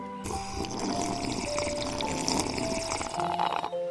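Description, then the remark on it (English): A long, steady sip of McCafe iced coffee from McDonald's, a gurgling, bubbly slurp of liquid with faint whistling tones that lasts several seconds, fairly loud and unbroken, with no one talking. “So pick up your McCafe iced coffees, close your eyes, and deep sip in.”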